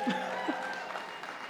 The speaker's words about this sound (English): Look at that, some whistles, some whistles. Thank you, I feel the love.